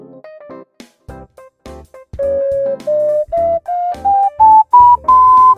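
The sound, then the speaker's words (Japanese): An ocarina plays a short, breathy run of quick notes, then a clear series of held tones that climb step by step up a scale, fairly loud with no talking. “オカリナはどうしたんだとオカリナはどうした練習してるのと言われたんで、えー、正直に誇りかぶってますと答えておきました一応ね近くに置いてあるんですよこうやってあのいつでもけるようにね”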